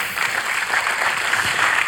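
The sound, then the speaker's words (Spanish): An audience breaks into steady applause for the king (Christ) during a Spanish-language sermon, a dense wash of many hands clapping at an even, fairly loud level throughout, with no voices rising above it. “Un aplauso para el rey.”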